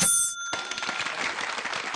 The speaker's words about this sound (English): I ask I ask for Las Vegas sound effects. Jackpots.